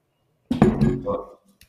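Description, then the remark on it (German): Glasses clink together in a toast. A bright, quick chime rings briefly and fades within a second, with a voice murmuring over it. “Zu, zu Streamaway, zum Wohl. Prost.”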